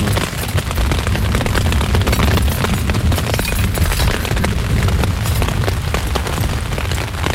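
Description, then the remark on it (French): Deep, rolling thunder from a circling storm rumbles loudly and continuously, with a crackling, booming texture that holds steady for several seconds without fading. No voices can be heard. “Ah, il tourne, hein. généralement les, orages ça tourne.”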